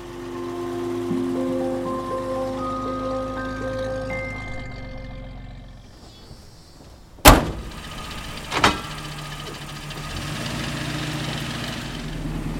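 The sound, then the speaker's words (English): A vintage Nash car engine idles with a steady, rising mechanical whine, then a car door slams shut loudly, followed by a second thud, before the engine keeps running. “Today, cars practically drive themselves, but we can recapture a bit of that vintage charm behind the wheel of a car like this on Nash.”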